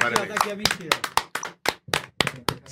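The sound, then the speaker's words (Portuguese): A short round of applause: sharp, uneven hand claps in a loose rhythm for about three seconds, with voices and laughter mixed underneath at first. “Uma salva de palmas pra galera”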